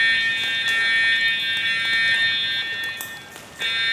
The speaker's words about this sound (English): I don't know this alarm. I've never heard it before.